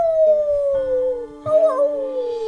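Wolves howl together in answer to another wolf's howl, in long, slowly falling tones that overlap at different pitches, and a fresh howl rises in about halfway through; the answering howls sound closer than the first, steady with no talking.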